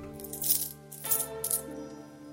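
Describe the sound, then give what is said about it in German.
A man opens a drawer and throws coins into it: three quick bursts of bright metallic jingling, moderately loud, over a steady low background hum. “Er öffnet die Schublade und wirft die Münzen hinein.”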